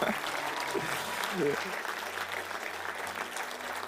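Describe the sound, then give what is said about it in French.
An audience at a church service applauds with steady, dense clapping that fills the whole clip, a brief voice rising over it near the start before the clapping continues evenly. The applause greets fellow believers watching online, and the hall is full. “On peut, on, peut, on peut les applaudir, montrer leur que vous êtes nombreux.”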